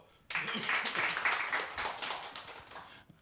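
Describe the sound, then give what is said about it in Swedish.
A burst of applause welcoming dancer Tony Irving in a dance room for a Let's Dance segment. It starts abruptly and keeps going as a dense, steady patter of many hands clapping, fairly loud, then cuts off after about three seconds. “En applåd!”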